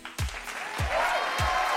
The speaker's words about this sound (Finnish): Kyllä niin vaatii nyt aplodit.